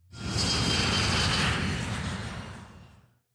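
A loud, steady roar of an airplane engine in flight, broad and rumbling with a hissing upper edge, holding for about three seconds before cutting off. No voices.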